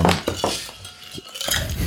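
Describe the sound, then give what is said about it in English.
A glass of lemonade knocked over: a quick run of sharp clinks and clattering knocks over a couple of seconds, bright and fairly loud, with no voices. “I knocked over my lemonade.”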